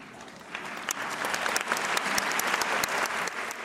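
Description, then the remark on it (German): A theatre audience at an Alice in Wonderland ballet breaks into applause as the lights go out and the curtain opens, dense overlapping clapping that swells quickly and holds steady at a moderate, even level with no voices standing out. “Also man klatscht halt, weil sich dann halt alle freuen.”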